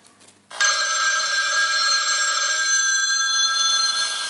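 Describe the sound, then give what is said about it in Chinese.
A telephone bell rings continuously after a brief quiet start, a loud, steady metallic trill with bright high overtones, sounding alone without any talk. “一个人在外唱歌，最盼望和家里打电话，可一拿起电话，又不知道该说些什么。”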